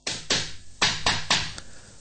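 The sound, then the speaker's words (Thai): Someone knocks on a hotel room door at night, about six sharp raps, with a short pause after the first two before the rest follow in a loose, uneven rhythm. No voices. “นี่ก็เหมือนกัน พอมีเสียงเคาะ”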